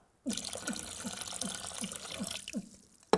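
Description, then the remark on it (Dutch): Water runs from a tap in a steady splashing stream with a rhythmic gurgle underneath, lasting a couple of seconds before stopping, followed by a sharp click. “En er was ook gewoon water uit de kraan. Om te drinken.”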